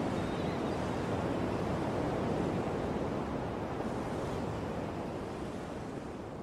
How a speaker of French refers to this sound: C'est un moment magique. Vous ressentez l'air frais qui vient de la mer et entendez la rumeur qui vient de la ville.